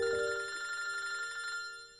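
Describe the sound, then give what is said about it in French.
A telephone bell rings during an evening dinner at friends' home in January, with a steady, rapid metallic trill lasting about a second and a half before stopping, with no talking. “Alors qu'ils sont en train de sauver deux ou trois vignerons, comme on dit par ici, le téléphone sonne.”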